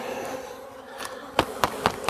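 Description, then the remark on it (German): A honeybee colony hums steadily at an open hive, a low continuous buzz, joined near the end by four sharp, evenly spaced knocks as the beekeeper firmly taps the queen excluder to clear the bees. The hive is being worked without smoke. “Den Bienen geht's gut, die Königin ist offensichtlich wohlauf, ist sehr fleißig am Legen.”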